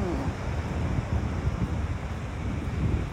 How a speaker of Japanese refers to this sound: はい、でねあのもう、えっと、砂浜にちょっと足が取られるくらいな感じにね濡れている状態ですねはいあの面白い感じでねあの波が打ち寄せていてねうん